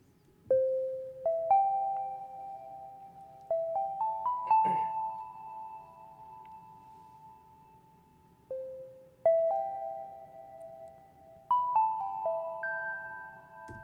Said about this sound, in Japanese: 音僕あの今白い鍵盤1個しか押してないんですけど。こんな感じでパターンがね、まあ、なんだろう音にディレイっていうかエコーっていうかねそれがかかってる感じなんで、えー、これでメロディーを作った音がこれですね。